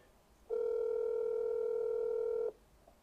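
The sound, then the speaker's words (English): A single steady electronic ringback tone sounds for about two seconds, loud and clear over a quiet background, as a phone line rings on an outgoing call that goes unanswered. No one speaks. “Is he picking up his phone?”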